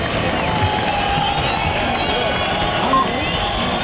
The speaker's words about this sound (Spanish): Ahí se va a los medios Ferrer Martín que levanta los brazos. La plaza es un clamor. La gente que ya está pidiendo el premio para Ferrer Martín.